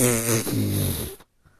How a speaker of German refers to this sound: Ii, … hat gefurzt.